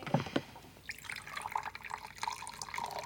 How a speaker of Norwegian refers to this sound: Han går mot kjøleskapet, tar ut mjølka og heller opp et glass.